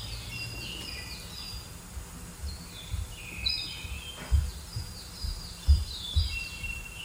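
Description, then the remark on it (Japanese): Birdsong and cows: birds chirp and trill throughout, bright high whistled phrases repeating over a soft steady background, with occasional low thumps and rumbles underneath. No one speaks. “あ、そう、鳥のさえずりと牛。”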